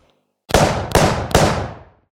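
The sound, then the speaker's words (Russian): Three loud gunshots ring out in quick, uneven succession, the chaotic shooting by Yurovsky's firing squad executing Tsar Nicholas II and the Romanov family, each a sharp crack followed by a booming, echoing tail that blurs into the next, then fades out. No voices. “Как тут же Юровский дал команду, и началась беспорядочная стрельба.”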